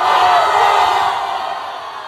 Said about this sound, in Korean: 기드온이 이렇게 세바와 삶은 나를 심판하고 이스라엘을 미디안의 손에서 구원해내자 이스라엘 사람들은 환호했습니다.